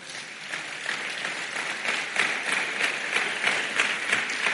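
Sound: audience clapping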